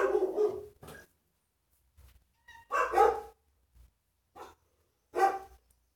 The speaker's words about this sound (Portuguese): Meus cachorros estão latindo aqui.